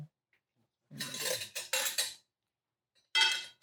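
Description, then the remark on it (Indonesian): A spare metal spoon clatters and scrapes against dishes while cooking, in a few fairly loud bursts, with short pauses between them and no voices. “Oke ini uh, sendok spare.”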